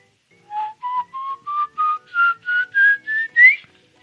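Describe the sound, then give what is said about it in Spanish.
A person whistles an imitation of an eerie call heard in the plains of the Guanarito region, Portuguesa state, Venezuela: about ten short, clear notes in a steady rhythm, each slightly higher than the last, fairly loud, with no talking. “Y el silbido era así.”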